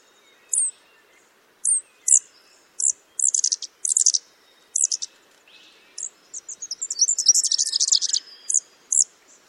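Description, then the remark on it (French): A fairy-wren's high, thin call rings out in short bursts of chirps and rapid trills, clear, with a longer fluttering trill near the end and no voices. It is the distinctive 'password' call that fairy-wrens teach their young while the chicks are still in the egg. “Comment ça se passe donc, ce qu'il se passe, c'est que les mérions apprennent un mot de passe à leurs jeunes. Ils enseignent. C'est-à-dire, ils ont un cri très particulier.”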